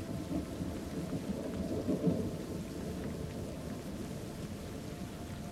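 A thunderstorm with steady rain hissing throughout and deep, rolling thunder rumbling underneath, swelling briefly around the middle. No voices.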